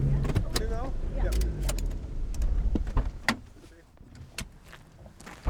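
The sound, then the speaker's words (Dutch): Someone gets into a car to drive just under 10 kilometres to a cemetery: sharp clicks and clunks of doors and handling, a brief electric whirr, then low engine and road rumble underneath, with faint voices in the background. “en dan stap je in de auto, want eh, ja.”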